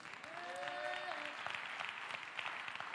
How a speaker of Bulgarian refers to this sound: О, ако ръкопляскаш, ръкопляскаш, че наистина вярваш, и го осъзнаваш.